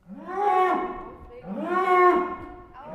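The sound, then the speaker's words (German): Bulls crowded together on slatted floors in a barn jostle a little and moo: two long, loud, drawn-out calls follow one another closely, and a third begins just as it ends. No one speaks. “Die Tiere rangeln ein wenig. Sie muhen.”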